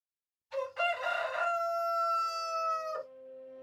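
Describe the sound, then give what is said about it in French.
A rooster crows once at daybreak, a loud cock-a-doodle-doo with a short opening note followed by a long sustained, strained call that cuts off sharply, with no one talking. “Un coq m'annonça le lever du jour”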